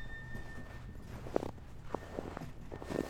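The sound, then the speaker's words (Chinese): Several crunching footsteps in thick snow in Beijing, spaced at an uneven walking pace, each a short soft burst of packed-snow crunch over a low steady background hum; no one speaks. “到我们踩雪的声音。”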